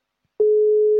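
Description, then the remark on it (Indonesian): A steady electronic ringing tone from a phone call placed on loudspeaker starts abruptly after a short silence and holds at an even pitch, loud. “Ah, nah, nah berdering.”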